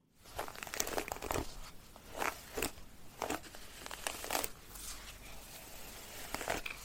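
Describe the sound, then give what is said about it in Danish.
A hairbrush dragged through hair in repeated, slightly uneven strokes, each a dry, bristly swish with a crackly texture over a steady scratchy rustle. No one speaks. “Det er lyden af en hårbørste, der rærer hår.”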